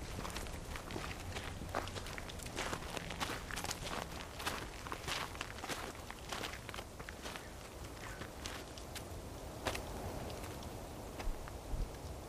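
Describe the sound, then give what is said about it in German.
Many footsteps shuffle and crunch together at a slow, steady walking pace as Claude Monet's funeral procession, led by the mayor, moves outdoors through the commune in France, with a faint, continuous background hiss and no voices. “Trauerzug zieht durch die Gemeinde, angeführt vom Bürgermeister.”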